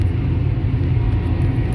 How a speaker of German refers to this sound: Also man merkt, ihr Traktoren sehen von draußen immer so ein bisschen gemütlich aus, aber auf dem Beifahrersitz ist das ordentlich huckelig.